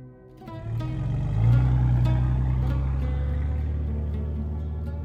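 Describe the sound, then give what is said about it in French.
A 4x4 vehicle engine drones steadily, its low rumble revving up after a second and then holding a loud, continuous growl, as it drives along a rough track on a journey to a summit. “Les bruits de moteur, l'odeur du bidon de gasoil qui me rentre dans les côtes et celle plus musquée de notre guide Touareg m'empêchent de goûter la beauté du paysage.”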